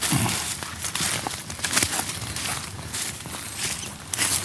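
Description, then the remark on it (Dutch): Steady footsteps crunch and rustle through dense forest undergrowth between two paths and over fallen tree trunks, with twigs snapping and leaves brushing in a continuous rhythm of walking. “we lopen nu een stukje tussen twee paden door.”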